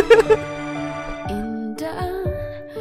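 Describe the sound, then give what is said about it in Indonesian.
A slow, gentle Indonesian pop ballad intro plays: sustained melodic notes ring out with a few soft new notes entering every half second or so, calm and moderately loud, with no singing or talking. “aduh kalau denger intronya gue langsung mau nangis”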